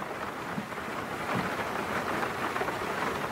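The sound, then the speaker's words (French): Steady rain patters on a fogged car windshield, heard from inside the car, in a dense, continuous hiss, with a few soft low thumps underneath. No one speaks. “Dans l'habitacle de votre voiture, en pleine contemplation des lumières de la ville à travers les gouttes de pluie qui coulent sur votre pare-brise embuée.”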